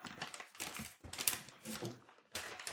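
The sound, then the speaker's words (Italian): Crisp, crackly rustling of a bag of San Carlo Antica Ricetta potato chips in several irregular bursts, with brief pauses between handfuls and a possible crunch of a chip being bitten. “Sta parlando di un, sacchetto di patatine San Carlo antica ricetta che sono molto buone.”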